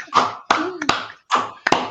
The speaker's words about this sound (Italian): glielo vogliamo fare un applauso